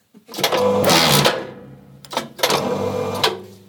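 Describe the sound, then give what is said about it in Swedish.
A book spine being cut off by a machine in the digitisation room of Stockholm University Library: two loud bursts of grinding, whirring mechanical noise, each lasting about a second, separated by a brief pause. No one speaks. “Så låter det när en bokrygg skärs av.”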